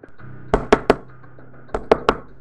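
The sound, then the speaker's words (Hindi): Two sets of three firm knocks on a wooden door at nightfall, evenly spaced and separated by a short pause, with a faint low hum underneath and no voices. “शाम ढलते ही उसका दरवाज़ा फिर किसी ने खटखटाया”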